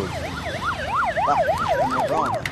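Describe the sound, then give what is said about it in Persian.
A police car siren wails in a rapid up-and-down yelp, rising and falling several times per second, loud, over a low rumble of traffic noise with no one speaking. “ماشین دوست آه پلیس پلیس”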